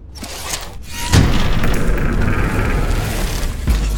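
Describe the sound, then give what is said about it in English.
A heavy mechanical rumble grinds on for several seconds, opening with a deep thud and sustained low-pitched scraping, as a secret door to a hidden passageway leading to the basement slides open, loud and with no voices. “Ah, a secret door!”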